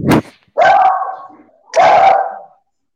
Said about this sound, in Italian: Ecco anche i cani